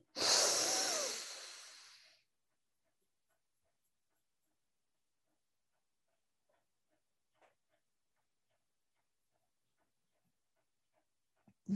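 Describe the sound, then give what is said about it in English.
A person breathes quickly in a loud burst lasting about two seconds that fades, followed by near silence broken only by a few faint, small clicks. “And once more, breathing quickly.”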